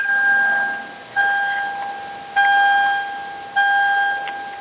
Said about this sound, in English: Okay, we're getting some strange sound again. Yes, sounds like the dinner bell. yeah, somebody needs to seriously mute this phone here in the background.